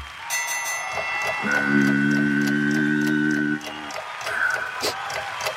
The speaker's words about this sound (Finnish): Kello käy, kello käy.